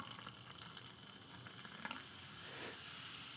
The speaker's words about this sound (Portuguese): mas estou acompanhado de outra bebida que eu gosto muito, que é uh, água com gás e que proporciona também um bom momento auditivo. Portanto, vou encher aqui. Pá, eu gosto muito, gosto muito deste som.